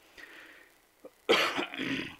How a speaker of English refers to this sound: excuse me, let me cough in your ears, folks.